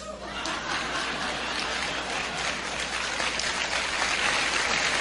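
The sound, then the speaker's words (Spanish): Sustained applause from a crowd for the 'nuevones', long-standing members, a dense, steady wash of many hands clapping that holds at an even loudness for about five seconds, with faint laughter mixed in. “Y por último le vamos a dar un aplauso a los nuevones.”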